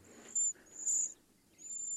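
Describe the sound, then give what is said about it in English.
A recording of a cedar waxwing's very high, thin, lisping whistles comes in three drawn-out bursts over a faint low background hum, with no one talking. “Okay, that's the cedar. I think it is a cedar then that we saw.”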